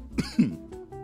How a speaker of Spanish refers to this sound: ganando en la, competencia de toser.